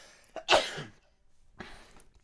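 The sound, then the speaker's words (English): A sudden, loud sneeze bursts out with a sharp hissing blast, then a fainter, breathy second burst follows about a second later. No one speaks. “sure I'm glad we got mics with those those sneeze buttons.”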